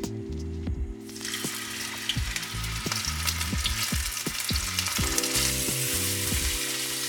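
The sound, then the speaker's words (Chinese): Squid coated in flour drops into a pot of hot oil about a second in, setting off a loud, steady crackling sizzle that continues throughout, with soft background music and no talking. “我现在已经把这个鱿鱼呢都已经裹好粉了，然后我们的油锅也热了，我们就来下这个鱿鱼。”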